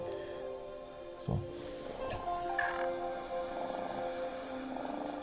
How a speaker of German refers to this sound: wenn du da hingehst, dann kannst du den streicheln, dann fängt er an zu schnurren.